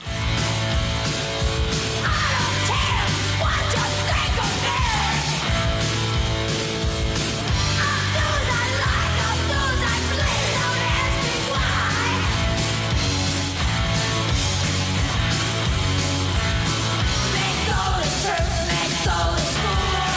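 A loud, dense hard rock track plays steadily throughout, with distorted guitars, pounding drums and a strong bass line, and a raw shouted vocal riding on top.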